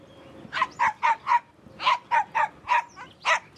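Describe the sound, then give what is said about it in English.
A black poodle barks at a small leather suitcase being carried along a street, repeatedly in two quick bursts, about four sharp barks, a brief pause, then five more at a steady rhythm. The barking is clear, with no talking. “The dog wouldn't stop barking at the bag.”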